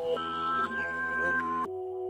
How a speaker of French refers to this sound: Pour commencer cette prod, du coup, bah, en fait, ouais, c'est une boucle de splice. J'étais inspiré d'une boucle de splice que j'ai prise. Une boucle avec un espèce de Ridou euh, derrière.